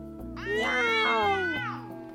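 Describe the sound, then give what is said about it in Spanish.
A single drawn-out cat yowl, loud, rising sharply then sliding down over about a second, like a cry of pain, with a low steady hum underneath. “Pero no era un ascua, sino los ojos del gato que aulló de dolor.”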